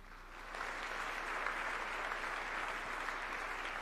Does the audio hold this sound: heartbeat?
no